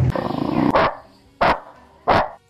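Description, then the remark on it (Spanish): A small dog lets out three loud, sharp, evenly spaced barks. Just before the barks comes a short rough, growly sound. No one is talking. “Lo que pasa es que el perrito pleiterito fue y le mordisqueó los cables.”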